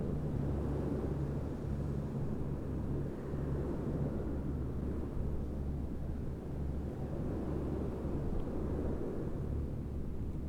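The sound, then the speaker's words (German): Steady ocean surf rumbles without pause, a deep, continuous wash of waves with no distinct breaks, heard alone at moderate volume. “Du hörst die Wellen im Hintergrund hier, das Meeresrauschen.”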